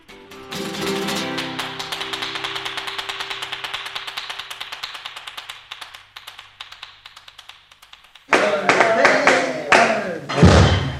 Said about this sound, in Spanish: Ya toca las palmas y no sé.